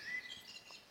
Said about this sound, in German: Ihr hört vielleicht im Hintergrund so ein bisschen die Vögel singen. Es ist ja Frühjahr, jetzt ist schon ein bisschen später am Tag.